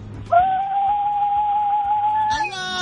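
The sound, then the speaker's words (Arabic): A woman's high, sustained ululation (zaghrouta), a mother ululating with the phone held to her mouth, comes through a thin, tinny phone line, holding one shrill note for about two seconds before cutting off abruptly. “نسمع زغروطه من ماما يلا زغروطه من ماما ماما زغراتي ماما”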